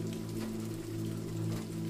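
Steady rain falls in a continuous soft hiss, with a low, even hum running underneath. No voices or distinct drops stand out, just an unbroken wash of rainfall.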